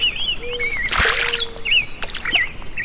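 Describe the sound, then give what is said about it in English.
Birds chirp and whistle repeatedly over a steady wash of lapping water at Trout Lake, with a brief louder splash near the start, all heard outdoors without any voices. “This recording we're going to listen to on the way out is a recording of the birds and the water at Trout Lake.”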